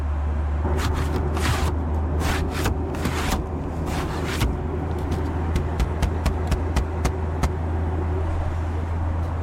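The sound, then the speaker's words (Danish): The window shade of an ordinary passenger window on a Ryanair flight sliding open and closed a few times, quick scraping swipes followed by sharp little clicks, over a steady low cabin engine drone. “at man kan ligesom åbne og lukke vinduet. Eller trække for og fra. Ja, det er sådan, det lyder.”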